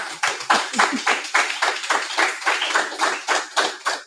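Applause from an audience, a steady patter of many hands clapping at a brisk, fairly even rhythm, moderately loud and sustained for several seconds with no voices over it.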